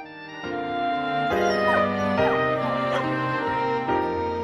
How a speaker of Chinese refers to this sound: 听到前面狗狗的叫声，大家有什么想法呢？是不是觉得它们很可怜呢？